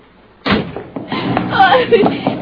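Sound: door being slammed shut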